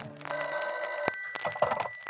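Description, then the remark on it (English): An old telephone bell rings loudly, a bright sustained metallic trill that fades into a second, more broken burst of ringing with no one speaking. “And when a phone call brings them together, a big story starts to roll.”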